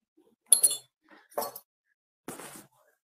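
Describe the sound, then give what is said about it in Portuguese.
Metal medals clink together in three short, bright bursts as they are handled and shown, with brief pauses between; a yellow medal from a first challenge and a red medal from a second challenge. “A medalha, a medalha amarela é do primeiro desafio, a medalha vermelha é do segundo desafio.”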